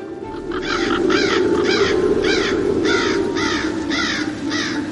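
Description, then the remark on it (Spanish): A steady series of harsh crow caws repeats about every half second, several crows calling as they circle overhead above a winery owner hurrying to harvest grapes before a storm, over a constant low rumbling background, fairly loud. “El dueño de la bodega se apresuró a recoger la fruta observado por un grupo de cuervos que volaban en círculos por encima de su cabeza.”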